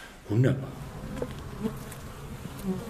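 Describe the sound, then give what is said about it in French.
Honeybees buzz around a rooftop hive on a second floor in a steady droning hum, swelling louder as individual bees pass, with a busy background murmur of many wings and no voices. “les abeilles sont flexibles et que ce sont des insectes proches des arbres.”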